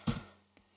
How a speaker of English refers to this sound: you can hear me typing on my computer.